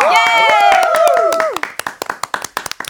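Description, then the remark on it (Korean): Several voices cheer and whoop with pitches sliding downward over dense clapping as a song is introduced; after about a second and a half the cheering stops and scattered, uneven hand claps continue. “박수와 함성이야.”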